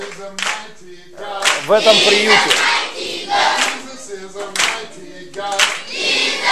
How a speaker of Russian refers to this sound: А, вот звук поднимите, это небольшое служение.